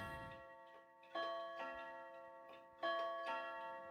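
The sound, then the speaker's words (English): A clock ticks at a slow, steady pace, each tick carrying a faint resonant metallic ring that lingers between beats. It's quiet, with no voices. “I have a couple of clocks that go off periodically.”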